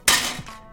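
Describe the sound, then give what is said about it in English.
A Foley effect standing in for a nut falling into a gutter: a single sharp metallic clack as a small piece of ginger strikes the tin lid of a domino set, followed by a brief tinny ring that quickly fades. “That was the sound of a piece of ginger hitting the tin cover from a set of dominoes.”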